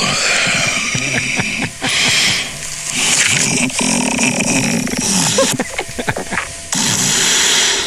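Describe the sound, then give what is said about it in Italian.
Loud, rasping snoring breaths of a sleeping person breathing through an open nostril come in a rough series of noisy drawn-out pulls with short gaps between them, harsh and buzzy throughout. “Respiro... Sì, Dorme sì. male, eh? No, c'è la narice aperta.”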